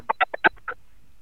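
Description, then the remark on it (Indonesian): A voice imitates the squeak of a rubber toy chicken being squeezed, with about six short, nasal, honking bursts in quick, uneven succession, followed by quiet. “Suara ayam karet.”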